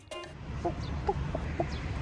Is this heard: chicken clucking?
yes